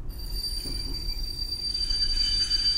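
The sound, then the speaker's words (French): A train's brakes squeal in a steady, high-pitched screech over a deep rumble of rolling wheels, holding on without pause as the train slows on arriving in Rome. No one speaks. “Les freins crissèrent.”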